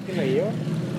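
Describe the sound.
A voice imitates a car passing with a rusted, holed muffler: a rough, steady low rumble with a brief rising-and-falling buzzy tone, lasting about a second.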